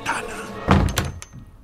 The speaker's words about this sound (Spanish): Scrooge cerró la ventana